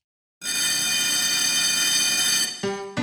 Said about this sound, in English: But that bell was actually telling us that we are out of time.